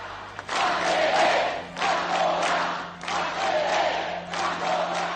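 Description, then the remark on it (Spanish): An angry crowd shouts in unison at demonstrations and vigils after a funeral, chanting in four rhythmic surges with brief dips between, voices blending into a dense roar with no single speaker standing out. “Una vez pasado el funeral, las manifestaciones y vigilias se tornaron en gritos de ira y rabia.”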